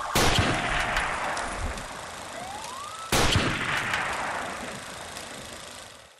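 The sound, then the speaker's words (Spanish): Two loud gunshots about three seconds apart as police officers fire at a camera on a plain, each a sharp crack followed by a long, rumbling echo that slowly fades, with a faint rising whistle-like tone between them. “Le disparan a la cámara.”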